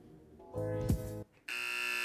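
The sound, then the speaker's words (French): A loud buzzer sounds in two bursts: a harsh, rumbling buzz that swells and cuts off, then after a brief gap a brighter, steady electronic buzz that continues to the end. “Ah bah, pile poil buzzer.”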